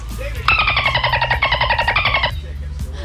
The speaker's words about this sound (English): Oh, that's easy. It's a dolphin.